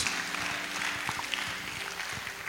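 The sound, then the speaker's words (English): An audience claps for Jesus steadily throughout, a dense continuous patter of many hands at moderate volume, with no clear voices on top. “Oh, they're clapping for Jesus.”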